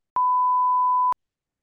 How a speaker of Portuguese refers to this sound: Ok, então eu meto um pi. Agora, só, só agora, só para meter. Porque quando é se diz que se tem de meter pi, metes metes um pi. E se for agora?